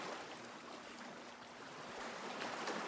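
Steady rush of a mountain stream cascading over rocks, a continuous hiss of running water with no pauses and no voices, holding an even level throughout.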